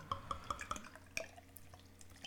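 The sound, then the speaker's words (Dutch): Saison beer (Mannenliefde by Oedipus) poured into a glass, with a quick run of hollow, bubbly glugs followed by a softer fizzing trickle. Fairly quiet, with no one talking. “We gaan drinken inschenken.”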